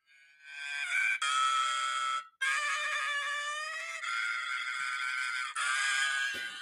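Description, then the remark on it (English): A compilation of a woman's loud, sustained screams, several long high-pitched shrieks strung together with abrupt cuts between them, piercing, with no talking. “i have a compilation of me screaming and i actually was working on it yesterday um i kind of might add it in i'm gonna you, give you a little sneak peek of how it is”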